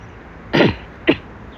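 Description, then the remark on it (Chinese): Someone clears their throat twice: a longer, rough, gravelly rasp, then a brief, sharper second hack. Nothing else is heard; there is no talking. “他有没有资格去去去批评别人的喉咙？有没有去清干净？”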